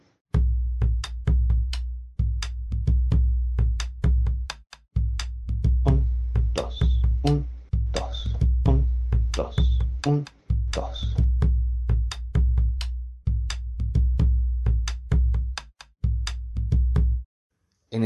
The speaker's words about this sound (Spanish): ejemplo que escuchábamos recién, que es la base de una chacarera tocada por un bombo legüero, los sonidos del parche, los sonidos graves del bombo, corresponden con la acentuación del tres cuartos.